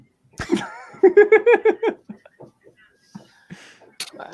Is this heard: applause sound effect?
no